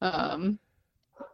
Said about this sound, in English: sorry if you hear my dog in the background